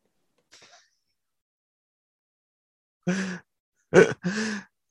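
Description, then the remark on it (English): Someone sneezes several times in quick succession, loud, after a short quiet stretch with only a faint breathy noise near the start. “bless you, bless you.”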